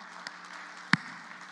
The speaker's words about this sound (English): I mean, I don't know if you want to clap for that, but, uh, you know, I, I will.